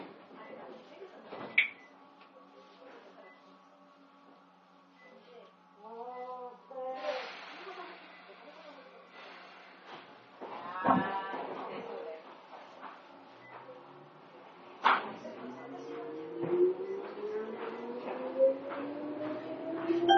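An Izukyu 8000 series electric train running between Izukyu-Shimoda and Ito in Japan idles with a steady motor hum, then bursts of air hiss and thuds before the motor whine climbs in pitch as it departs the station, heard from inside.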